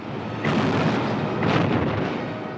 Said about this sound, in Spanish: Durante unos minutos hay un cruce tremendo de cañonazos.